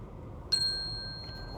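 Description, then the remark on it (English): A single bright page-turn chime, from a read-aloud of the book Whose Mouse Are You? by Robert Kraus, rings out sharply, then its clear tone lingers and slowly fades over a quiet background hum. No one speaks. “When you hear the chime, turn the page.”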